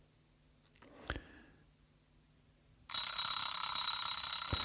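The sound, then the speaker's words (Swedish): An alarm clock rings at seven o'clock, beeping in short, high-pitched double pulses at a steady rhythm, then gives way to a loud, continuous buzzing wash with a thin, piercing tone above it. “Klockan sju ringde de flesta jordgubbars alarm.”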